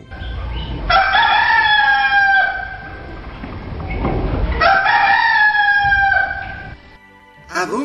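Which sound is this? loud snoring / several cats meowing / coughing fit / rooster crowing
rooster crowing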